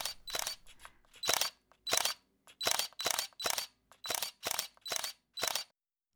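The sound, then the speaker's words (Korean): A camera shutter clicks again and again, about a dozen crisp double-clacks fired in a quick, fairly steady rhythm, with brief silences between them and no voices, as someone photographs the setting sun with a CPL filter on a coastal road. “지는 해를 바라보며 한참 동안 연신 셔터를 눌러댄다.”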